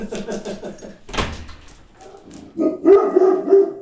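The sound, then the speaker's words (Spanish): A dog barks repeatedly, with short yappy bursts mixed with a thump like a door, the barking getting louder toward the end. “Es que hay uno ahí ladrando y no puede quedarse sin decirle no sé algo.”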